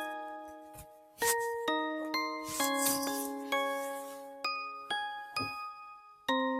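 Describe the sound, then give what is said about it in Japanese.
A music box sound from GarageBand plays a slow tinkling melody, each bright plucked note ringing out and fading before the next, clear with no voices. “このオルゴールの音を探すのもちょっとまず大変だったんだけどね。”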